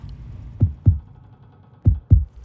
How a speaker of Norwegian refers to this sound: Hva er den lyden? Er det det onde? Hvilken lyd? Den som høres ut som et hjerte som slår.